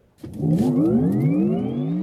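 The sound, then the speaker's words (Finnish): A combustion car engine revs up loudly and steadily, its harmonic growl climbing in pitch for about two seconds after a brief quiet start, alone with no voices. “Sähköautomiehet, ei puhuta pakoputkista.”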